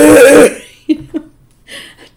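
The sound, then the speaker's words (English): A person imitates their dog's honking kennel cough, which sounded like a duck: one long, harsh, raspy blast followed by two short choppy hacks and a breathy trailing rasp, loud. “three days before, he started developing this cough, and it was really sounded like a duck and it was kennel cough.”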